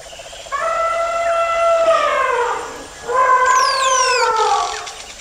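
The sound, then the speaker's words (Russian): A voice imitates an elephant's trumpeting call twice: two long, loud, wavering, high-pitched blasts with a short pause between them, with no speech. “Не под кукареканье петухов, а под звук вот этого вот слоновьего...”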